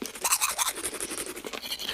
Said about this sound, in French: Puis vous vous brossez les dents.